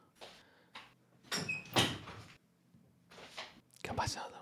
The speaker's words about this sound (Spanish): voy a cerrar la puerta. Un segundo.